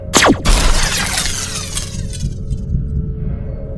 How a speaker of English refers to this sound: Then I whip up the gun and shoot it in the face.